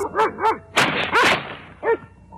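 A large dog, a Great Dane, barks loudly, about four deep barks in an uneven rhythm, with a rough, noisy scuffle in the middle and no voices.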